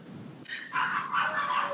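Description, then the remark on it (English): Dogs bark and yelp in a frantic fight at a house, a shrill, continuous burst of high-pitched cries that starts abruptly and stays loud, with no talking over it. “Oh, there's a dog fight. There's a dog fight at Jose's house.”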